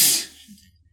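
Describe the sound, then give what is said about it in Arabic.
A single sharp sneeze bursts out at the start, a hissy, airy blast that fades within a fraction of a second, leaving near quiet with a faint low hum. “يرحمك الله”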